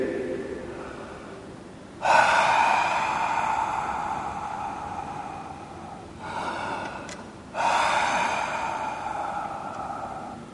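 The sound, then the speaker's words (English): A person breathes heavily and slowly, two long airy exhales separated by a brief pause, fairly loud, a voice imitating the breath of God moving through the darkness over the waters. “Heavy breathing.”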